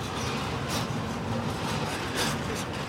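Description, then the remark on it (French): Flour mill mechanisms producing flour turn with a steady, loud rumbling drone, broken by a couple of brief rattling surges. No one speaks. “on entend les, mécanismes donc, qui tournent.”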